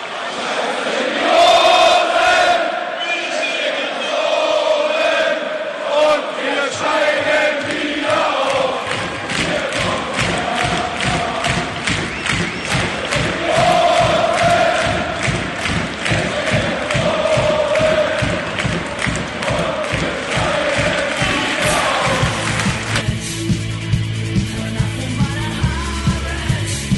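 A large crowd of Hertha Berlin football supporters chants in unison, voices rising and falling in a sustained melodic song, backed by steady rhythmic clapping or drumbeats that grow sharper toward the end.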